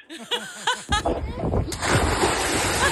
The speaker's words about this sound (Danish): En maveblasker.